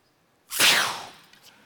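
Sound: arrow shot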